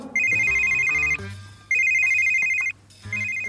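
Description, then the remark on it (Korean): An office desk telephone at a colleague's desk rings in repeated electronic trill bursts, three rings separated by short pauses, loud, with a faint low hum underneath. “강대리자의 전화 좀 당겨서 받아줘요.”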